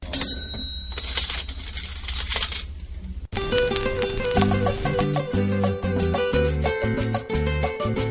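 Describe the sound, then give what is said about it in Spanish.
A coin clatters and rattles down through a jukebox in a cantina for a few seconds with metallic ringing, then a loud song abruptly starts playing from the jukebox, steady beat and bass. “Ah, un traguito en la cantina, metamos la moneda en la rocola a ver qué suena aquí.”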